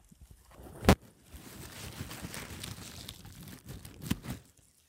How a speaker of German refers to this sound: Du hörst jetzt vielleicht, wie ich das abschneide ja. mit der Schere.